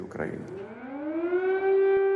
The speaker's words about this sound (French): Les sirènes retentissent à Kiev.